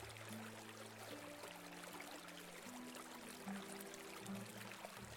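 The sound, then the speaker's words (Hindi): A steady, continuous rush of river water flowing over the top of a bridge fills the whole stretch, fairly soft and even, with a low sustained droning tone running beneath it and no voices. “उस रोज भी नदी का पानी पुल के ऊपर से बह रहा था नदी की तेज आवाज दूर तक सुनाई पड़ रही थी”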